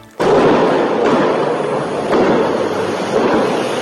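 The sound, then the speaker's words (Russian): A loud fireworks salute set off by local residents in Rostov-on-Don, Russia, in the first days of winter erupts suddenly into a dense, continuous roar of crackling bursts, with heavier booms landing roughly once a second. No voices are heard. “Местные жители решили отпраздновать это событие салютом.”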